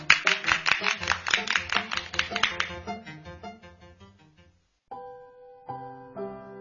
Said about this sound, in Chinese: 好，那我们就一块儿欣赏你的诗朗诵，大家鼓掌。